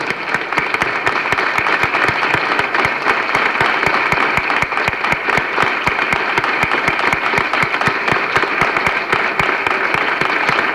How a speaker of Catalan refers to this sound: Per tant, et donem tots les gràcies i et dediquem un fort aplaudiment i tota la nostra estimació.